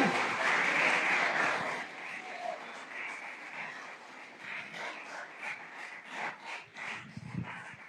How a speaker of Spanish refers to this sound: Deberías todas las mañanas levantarte, mirar todo lo que el Padre te ha dado y que tu corazón se hinche de gratitud a aquel que dio todo, absolutamente todo por ti y a quien le damos un aplauso en esta gloriosa mañana de escuela dominical.